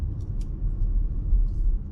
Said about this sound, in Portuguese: ó, tô passando aqui por buraco.